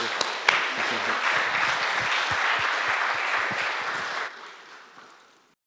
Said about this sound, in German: Danke schon vielmals. Ich finde, es ist ein Applaus wert.